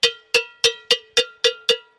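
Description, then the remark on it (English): A cowbell struck seven times in a quick, steady rhythm, each hit a bright, metallic clang with a sharp attack and a short ringing decay. No voices. “Just hit the bell.”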